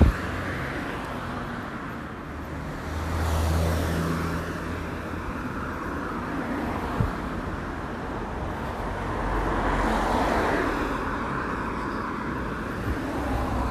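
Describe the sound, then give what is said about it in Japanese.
Cars swish past on a road, with two louder passes swelling and fading around a steady low hum of surprisingly heavy traffic, and no one speaking. “すごい意外と交通量が”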